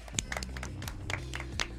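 Brief scattered applause welcoming a guest, a handful of sharp, uneven claps over a low steady background hum, with no voices.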